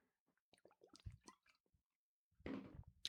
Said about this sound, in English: Let me get a sip first.